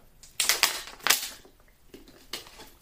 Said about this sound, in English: And now I need to take a sip of water.